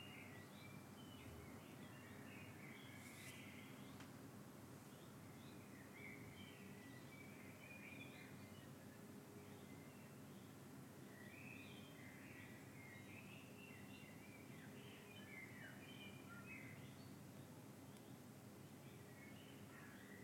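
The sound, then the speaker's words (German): Many birds chirp and twitter continuously outdoors, a busy chorus of small calls over a steady background hum, with no one speaking. “Wir haben jetzt noch ein bisschen die Vögel an draußen.”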